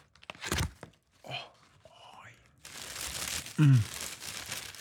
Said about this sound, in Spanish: Siéntense, en la, la bocina, ¿no? Para este asmer de unboxing de el Puma Slipstream.